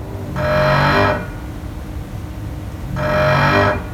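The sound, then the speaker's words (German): Two sharp bursts of hissing air, each lasting under a second and separated by a short pause, as the air suspension bellows under a VT2E railcar vent pressure, with a faint low rumble beneath. “Dazu sollte man vielleicht wissen, fast jedes Eisenbahnfahrzeug verfügt über Luftfedern, der VT2E im Übrigen auch.”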